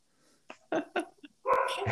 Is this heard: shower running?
no